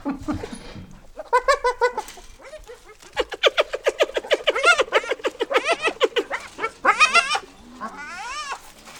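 A hyena's laughing call: bursts of rapid, high-pitched giggling whoops with wavering, rising and falling pitch, repeated over several seconds with brief pauses, loud and with no talking.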